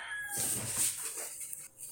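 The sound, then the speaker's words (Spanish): A rooster crows once in a drawn-out, wavering call with no voices over it. “¿Quieres hacer sopa de, de, gallo?”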